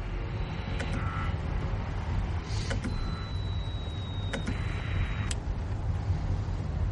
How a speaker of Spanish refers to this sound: Avanzan por una larga recta. El coche apenas ilumina 20 metros de la calzada.